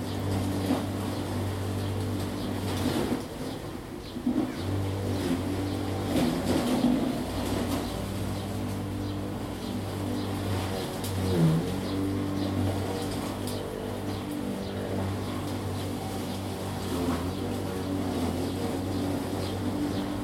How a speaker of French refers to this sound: Enregistrement le 19 avril 2021 à Saint-Brieuc, dans un jardin d'une périphérie de la ville. Il est 16h30 le voisin passe la tondeuse.